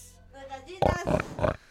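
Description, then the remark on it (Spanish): A person imitates a pig, making a few loud, rough grunting snorts in quick succession after a softer nasal lead-in. “tiene claro hacer el sonido del marrano”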